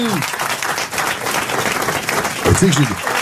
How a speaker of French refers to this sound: Non, Alors, je crois, on applaudit Patrick Sébastien qui était avec nous.